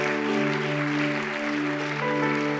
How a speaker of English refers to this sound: Amen. Let's give God a great big hand clap of praise. Thank you, Lord.